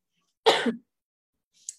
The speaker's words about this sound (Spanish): siguiendo con mi tos